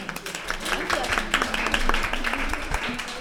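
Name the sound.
applause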